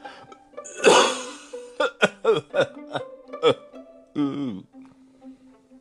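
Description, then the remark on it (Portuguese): A person coughs and clears their throat: one harsh cough, then a rapid series of short hacking coughs, ending in a rough, voiced throat-clearing grunt. Fairly loud. “A tosse raspando a garganta.”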